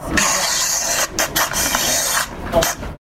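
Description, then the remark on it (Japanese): A scratchy pen-on-paper sound effect played by the Dot Canvas app on an iPad when a finger moves on the screen: continuous raspy strokes with brief pauses and bursts, fairly loud, lasting about three seconds with no talking. “えこの音が、えー、っとですね、これはあのドットキャンバスっていうこの iPad 上で動いているえアプリが出している効果音ですね。えー、まあ、イメージとしてはこの、えー、ペンで紙に書いた時の音みたいな感じですね。”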